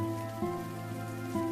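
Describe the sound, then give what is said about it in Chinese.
Soft, steady rain patters in a continuous hiss, quiet throughout, layered with a low sustained humming tone that swells briefly twice; no one speaks. “紧搂着，下雨了。”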